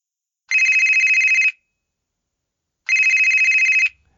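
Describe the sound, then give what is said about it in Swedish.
A telephone rings twice as an outgoing call is being placed, each ring a bright, warbling electronic trill lasting about a second, separated by a longer pause of silence. No one speaks. “Vi gick på Martins råd och vi ringde upp, jag ringde upp”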